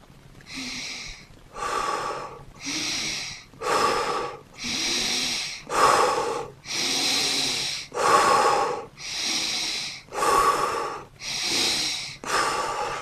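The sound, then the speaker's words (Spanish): Deep, steady breaths drawn in and pushed out, about a dozen airy, breathy bursts in an even rhythm with no talking, as a man sitting in a bathroom with the tap running breathes with his eyes closed to calm a panic attack. “Así que fui, me senté, abrí la canilla, cerré los ojos y empecé a respirar.”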